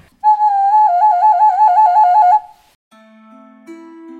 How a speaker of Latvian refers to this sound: Pirmais, ko viņš sāk taisīt, tas ir svilpaunieks. Un pēdējais, ko viņš spēja taisīt, tas arī ir svilpaunieks. Tas ir tas vienkāršākais. Māla pīlīt ar dobu vidu un caurumiņiem.